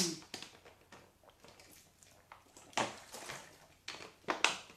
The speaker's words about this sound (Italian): Intanto bevo un goccino d'acqua. Mmm.